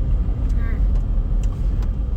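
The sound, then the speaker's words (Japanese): A steady low rumble of a car engine and tyres on the road while driving, heard continuously from inside the car, with faint brief higher clicks and a hint of a voice in the background. “うん今回はですねちょっと前回のリベンジというかまあ車運転ではドライブ中に、えー、ちょっと録音してみようという”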